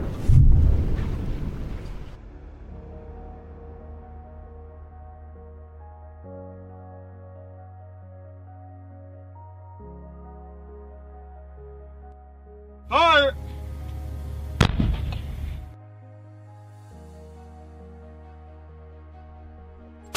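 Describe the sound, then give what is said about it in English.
Underwater pile-driving noise from wind farm construction: a loud, booming impact with a rumbling tail, followed by a steady low mechanical drone, then another sharp thud near the end accompanied by brief warbling tones. “Illegal Levels Of Whale-Killing Pile-Driving Noise By Wind Industry Documented”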